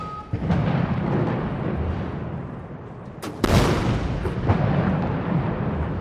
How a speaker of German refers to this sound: Ich habe mir nochmal das Video der Parade zum 70. Geburtstag Chinas angeschaut und da sieht man ein Riesenaufgebot auf dem Tiananmen-Platz. Erst schießen Kanonen.